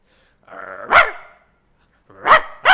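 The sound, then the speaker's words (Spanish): A person imitates a gruff dog: a low growl builds into one loud guttural bark, then after a pause two more harsh barks in quick succession, forceful. “A ver ahora ese perro. Ahí va. Está mucho mejor.”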